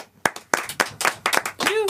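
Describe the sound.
A short burst of audience applause: sharp, irregular handclaps building in density, with a voice calling out over the clapping near the end.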